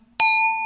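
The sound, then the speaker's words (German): A single crisp tap of a pen against a glass for a toast, followed by a clear, bright ring that sustains and slowly fades. Fairly loud, with no voices. “Ja, dann äh, nehme ich mal ganz kurz hier wieder den, den schönen Stift und sage einfach nur”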